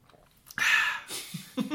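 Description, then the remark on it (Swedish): A short slurp as someone sips somewhat cold coffee from a cup, a breathy rush lasting under half a second, followed by a softer intake and a small swallow or mouth sound. “jag ska ta en klunk av det här goda kaffet.”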